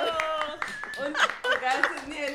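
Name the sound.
hands clapping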